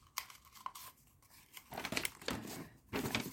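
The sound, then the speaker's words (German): Sticky tape (Tesafilm) is pulled off a roll and torn to fasten a rolled-up picture, a few sharp crackling bursts and a longer ripping stretch, with no talking. “und mache das mit einem kleinen Stück Tesafilm fest.”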